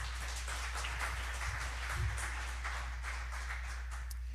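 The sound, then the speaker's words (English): An audience claps steadily for a few seconds to celebrate a house built on a mission trip, a dense, even patter of many hands with no voices, sitting over a constant low hum. “But it was, oh yeah, let's clap for that.”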